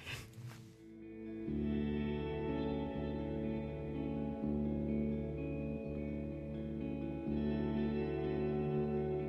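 An instrumental song opens with sustained, heavily reverberant guitar tones forming a steady wash of sound, with soft pulses recurring every second or so, played fairly loud with no voices.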